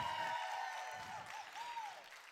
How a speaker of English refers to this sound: Give it up for everybody that got baptized today. Come on, as a family, let's cheer for them.